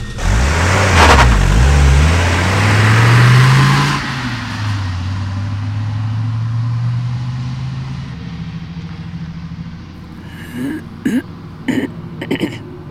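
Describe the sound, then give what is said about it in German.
A car engine revs loudly and the car drives off, its hum settling into a steadier drone that slowly fades. A few short throaty vocal sounds follow near the end. “Dass ich sie hab fahren lassen.”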